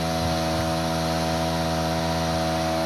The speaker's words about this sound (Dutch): Ik ben benieuwd of de mensen ons nog kunnen horen. Vast wel. Er is een boor op de achtergrond, maar ik denk eigenlijk dat met die microfoons.